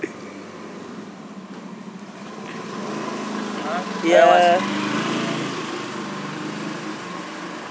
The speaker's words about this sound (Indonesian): oke ini pause dulu ya motor lewat biasa